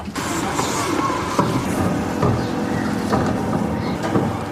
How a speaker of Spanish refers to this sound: Déjenme ver que el camión de la basura está pasando.